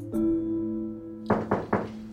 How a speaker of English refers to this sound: A little while later, Britney can hear a knock on her door. It's her mom. But the door doesn't open.